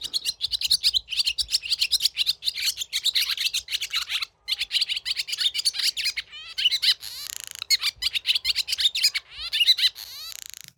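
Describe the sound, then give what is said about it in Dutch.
A barn swallow sings a long, continuous twittering song of rapid chirps, scratchy rattles and buzzy trills, fairly loud, with only brief pauses and no voices. “anders had ik drie kwartier zingen in de Boerenzwaluw gehad en nu vijf minuten”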